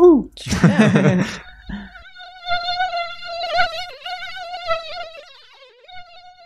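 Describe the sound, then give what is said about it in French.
A mosquito's thin, high whine drones steadily for several seconds, wavering slightly in pitch, after a brief burst of rustling noise at the start. “On a parlé du coup d'un peu des pistes thérapeutiques et préventives pour l'homme, mais on pourrait aussi s'attaquer aux problèmes euh, à la source, c'est-à-dire avec les moustiques finalement.”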